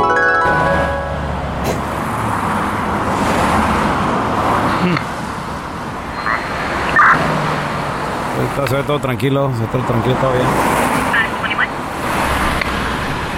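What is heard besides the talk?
car approaching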